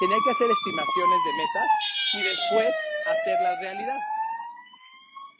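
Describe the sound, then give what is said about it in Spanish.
An ambulance siren wails steadily outside, its tone sliding slowly downward and fading as it passes, while a man keeps talking over it. “disculpa el ruido de la ambulancia”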